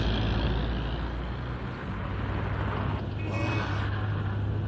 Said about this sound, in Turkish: Bu Avcı Mehmet'in kamyoneti. He o.